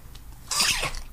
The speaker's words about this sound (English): Bless you. Oh, thanks. Uh, rare uh, podcast sneeze. Um, let's not edit that out.